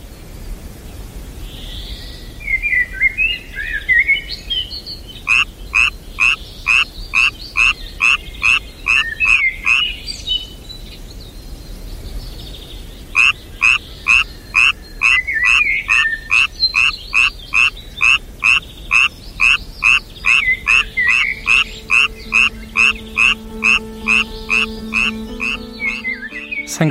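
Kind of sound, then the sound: animal, tree frog croaking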